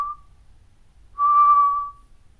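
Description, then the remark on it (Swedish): A person whistles a steady, monotone note imitating a bird's most common spring call: a brief start, then one long sustained whistle of under a second, clear, with no talking. “det vanligaste lätet man hör från den det är ju på vårarna när den har sina eh, så här entoniga långa visslingar istället.”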